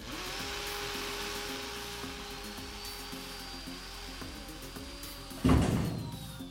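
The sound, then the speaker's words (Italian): Thieves break through the thick wall of a basement nuclear shelter with a jackhammer: a loud, steady mechanical drone with a whining tone runs throughout, then a sudden heavy crash of breaking material near the end. “Sfondano il muro con un martello pneumatico.”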